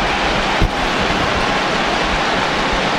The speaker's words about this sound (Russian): Встал, встал Джики, аплодирует, вы, наверное, слышите это прекрасно. Аплодируют трибуны.